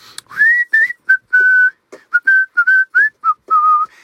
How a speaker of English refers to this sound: In my case, it was whistling.